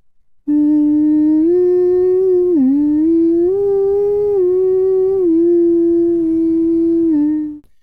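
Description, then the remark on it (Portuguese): A voice hums a slow, soothing lullaby as a gorilla cradling a stuffed toy dog, one long unbroken tone that glides gently up and down in pitch for several seconds, with no words. “Cantarola o gorila enquanto embala o cachorrinho de pelúcia.”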